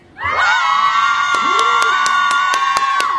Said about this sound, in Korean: 아, 이 함성 소리 들으니까. 엄청 잘하네.